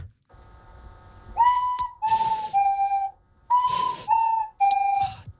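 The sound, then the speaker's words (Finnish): A recorder plays two short three-note phrases of steady, slightly wavering tones, with breathy air noise between notes. It sounds a bit out of tune and fairly loud, with no voices. It is a classic tune learned on the recorder at school. “Siis, miksi toi kuulostaa siltä, että ne nokkahuolet on aina epävirrassa?”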